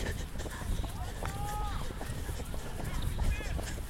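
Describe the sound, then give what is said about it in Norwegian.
Quick, steady footfalls of someone running a race at speed, with thudding impacts and a few short vocal or breathy tones over a constant background rumble. “For de som hører på og ikke ser dette, så det er definitivt løping.”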